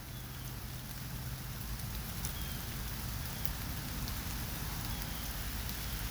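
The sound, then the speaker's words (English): Steady rain patters onto a hard surface, a dense continuous spray of droplets with occasional sharper taps, even in loudness throughout, with no voices. “Can you hear the raindrops?”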